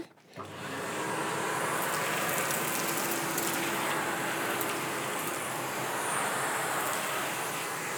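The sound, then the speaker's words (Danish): A vacuum cleaner starts up and runs with a steady, loud roar while vacuuming a shop, as small loose stones rattle and click sharply through the nozzle at irregular moments. “Jeg ved ikke, hvor de løse sten ligger alle sammen, men det kommer sådan lidt efter lidt.”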